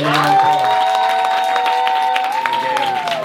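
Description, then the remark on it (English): Steady audience applause for a stand-up comedian, a dense crackle of many hands clapping at full volume for a few seconds, with a sustained high whistle-like tone running through it. “Give him a round of applause, man.”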